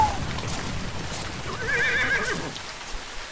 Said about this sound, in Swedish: Där. Ja men snälla. Ska vi där... åka häst och vagn? Nej det där är inte vår.